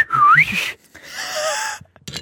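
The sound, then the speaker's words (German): A person whistles an imitation of a tit's call: a quick swooping, upward-curling phrase, a short break, then a longer wavering whistle. The whistling is clear and fairly loud, with no talking. “Und die Meise nur so.”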